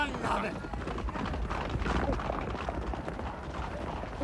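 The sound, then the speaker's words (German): A dense, steady rumble of galloping hooves from several racehorses thundering into a bend during a race, blended with a continuous wash of crowd noise and murmuring voices. “Da kommen sie schon in die Kurve!”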